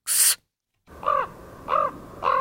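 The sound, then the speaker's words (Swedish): A common raven, the provincial animal of Dalsland, Sweden, croaks three times in a slow, evenly spaced series of hoarse, throaty calls, coming after a short burst of noise and a brief silence. “Korvas korux, en korp.”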